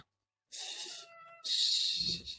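A pet cat meows twice in close succession, the second call longer and louder, both loud with a bright, strained tone and no talking.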